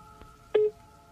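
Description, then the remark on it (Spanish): A short electronic tone burst, like a telephone keypad beep, sounds once clearly against a quiet background hum, preceded by a fainter blip, as someone calls a person back by mobile phone. “Vamos a volverlo a llamar. Por celular.”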